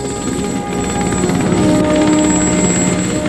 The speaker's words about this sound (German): Ein Hubschrauber?